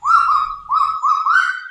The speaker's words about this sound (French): Ce que l'on vient d'entendre, c'est le cri du cagou, l'oiseau emblématique de la Nouvelle-Calédonie. Le cagou est un échassier au plumage gris et aux fortes pattes orangées. Il est incapable de voler, il aboie comme un chien